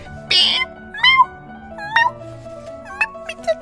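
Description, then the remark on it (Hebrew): A very small new female cat, sitting on shoes in a closet, gives a series of short, soft, high-pitched squeaky meows, like a small rubber duck being stepped on, about five in quick succession, with no one talking. “אה, אולי תשמעו אותה עושה מיהו לפעמים.”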